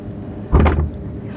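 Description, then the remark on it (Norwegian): A heavy, very old barn door is shoved open in one short, grinding burst, fairly loud with a low rumbling scrape, surrounded by quiet background hum. “Det er en veldig gammel dør, så jeg tror ikke det går an å åpne den.”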